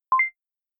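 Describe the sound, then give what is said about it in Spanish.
A short electronic censoring bleep replacing two spoken words, a quick, clear two-tone chirp rising from a lower pitch to a higher one, then silence. No voices are heard. “En vez de decir estas dos palabras mágicas, sustituiré el audio por este bip.”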